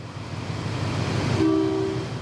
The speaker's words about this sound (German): Im Kellergeschoss des Bahnhofs von Johor Bahru, ganz im Süden von Malaysia, da wartet der schon etwas in die Jahre gekommene Zug auf die Abfahrt ins große Abenteuer.